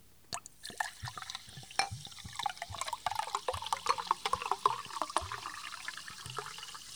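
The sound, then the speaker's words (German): About half a litre of water, not quite cold, is poured and splashes into a bowl for several seconds, with irregular sloshing and dripping sounds, moderately loud, no voices. “Das Wasser tust du in eine Schüssel.”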